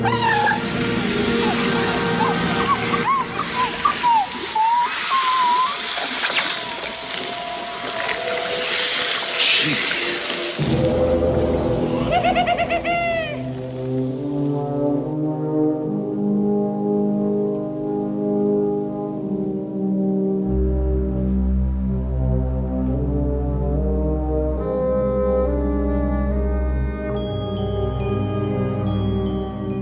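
Dark orchestral film score from the opening of Tim Burton's 1989 film Batman, starting with shimmering, swirling strings, then settling into sustained layered chords as a deep, heavy low brass and bass line swells in, loud and continuous, with no talking.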